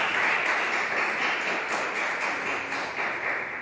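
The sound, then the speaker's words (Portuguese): An audience claps together for Jesus in a sustained, dense burst of applause, a steady crackling roar of many hands that holds for the whole stretch with no one talking over it. “Se você crê, dê uma salva de palmas muito forte para Jesus.”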